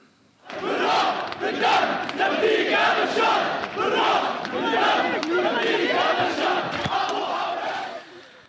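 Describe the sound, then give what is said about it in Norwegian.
A large crowd of supporters cheers and chants in loud, rhythmic unison in the opera house in Damascus, Syria, at a speech by President Bashar al-Assad, voices swelling together for several seconds without a break before fading out at the end. “Ja, til jubel fra sine tilhengere som var samlet i operahuset i Damaskus i går”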